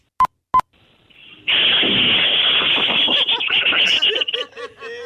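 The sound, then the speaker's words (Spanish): Two quick electronic beeps, then a voice makes a long, loud rushing hiss that turns into gurgling bursts, imitating a toilet flushing. “Un toilet flochando.”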